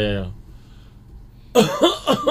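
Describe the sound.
After a short bit of voice and a quiet pause, an unwell father with a weak body and an itchy throat lets out a rapid run of three harsh, loud coughs.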